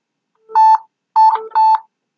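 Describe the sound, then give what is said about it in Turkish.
Three short, crisp phone keypad tones sound in quick succession, the bright dual-pitch beeps of a phone number being dialed to call someone, clear with no talking. “Şimdi kendisini arayacağım.”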